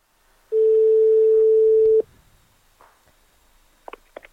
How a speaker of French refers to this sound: Un coup de fil et une voix prend possession de toute votre attention.